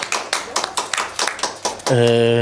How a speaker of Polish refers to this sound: Po drugie, dziękuję oczywiście …, która dzisiaj wystąpiła pięknie dla nas w świątecznej atmosferze, w świątecznym klimacie. Mogą tak, mogą być brawa dla niej.